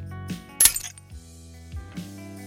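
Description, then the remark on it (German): A hammer strikes a nail once, a sharp, bright metallic crack that rings briefly before fading, set among low, droning tones with no voices. “Wir haben uns für einen Hammer, der auf einen Nagel schlägt, entschieden.”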